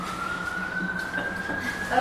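A fire engine siren wails steadily, one drawn-out tone slowly climbing in pitch, over a constant low rumble of background noise.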